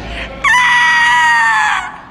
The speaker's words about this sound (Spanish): ¿Qué ocurre? Los gritos en el apartamento 706. Creo que ocurre algo muy malo.